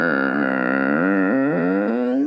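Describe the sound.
A voice imitates the long, loud creak of a bedroom closet door opening in the middle of the night in a house from 1950: one continuous, strained, groaning tone lasting about two seconds, its pitch wavering and bending, held steady without pause.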